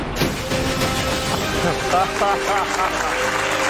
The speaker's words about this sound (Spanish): Señoras y señores, señoras y señores, bienvenidos al plató del chiringuito de jugones. Recibamos con un fuerte aplauso a Josep Pedrerol.